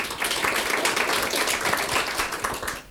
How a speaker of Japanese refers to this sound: 早速ですので、えー、ご質問者の方に、えー、皆さん拍手をお願いします